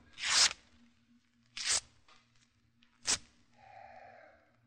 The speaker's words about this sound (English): Burns nicely, doesn't it? A good letter paper.